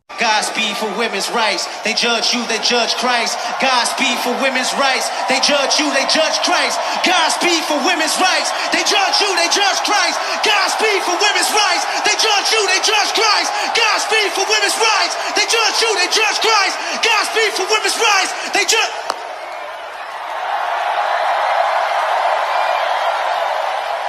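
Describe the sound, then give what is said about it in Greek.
A huge concert crowd roars, whoops and yells continuously at full volume after the final song, as the performer drops the microphone and leaves the stage; a dense wall of cheering that thins abruptly near the end into a softer, hissing wash of applause and shouts. “εκεί που διακόπτεται το να φωνάζει Godspeed for Women's Rights, They Judge You, They Judge Christ, άφησε το μικρόφωνο και έφυγε, ενώ ήταν όλοι του χορευτέ στη σκηνή ακίνητη και ενώ το πλήθο από κάτω παραλυρούσε.”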